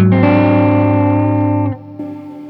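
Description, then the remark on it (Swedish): A sustained, harmonically rich synth or guitar tone with a gritty, degraded lo-fi effect as the effect's mix knob is turned up, loud and steady, then it drops off and a quieter filtered version continues briefly. “Och sen kan jag dra upp den här total eh, mixratten för den här lo-fi-funktionen.”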